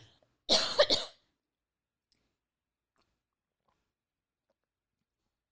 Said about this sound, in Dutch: Als ik niet op tijd drink, krijg ik een droge keel en dan moet ik hoesten. En dan, ja. En hoesten is ook al heel erg verboden in deze tijd, hè?